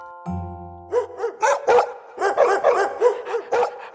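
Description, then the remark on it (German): A short ringing tone sounds first, then a dog barks rapidly about a dozen times in a steady, fairly loud run with no one speaking. “Hund und Futter. Hund sieht Futter.”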